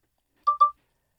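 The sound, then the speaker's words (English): A NutriSense glucose biosensor device gives two quick electronic beeps in rapid succession, clear, with a bright tonal chirp and silence around them. “That was the sound of the NutriSense biosensor.”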